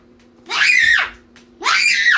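girl screaming

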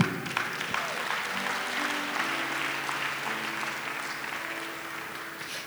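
audience clapping

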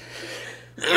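sneeze

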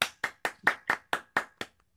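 clapping applause

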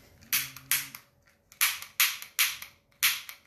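lighter being flicked

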